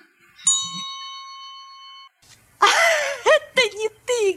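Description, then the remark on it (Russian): A vacuum cleaner gives a single steady electronic alert tone, clear and fairly loud, holding for about a second and a half. After a short pause, a person starts talking. “Это кричит твой вакуум.”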